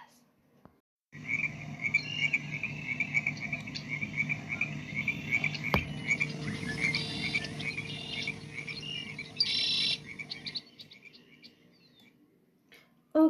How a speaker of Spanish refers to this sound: Además, concentrémonos y lograremos escuchar unas ranitas cantoras.